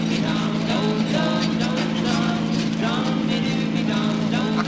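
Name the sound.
car engine revving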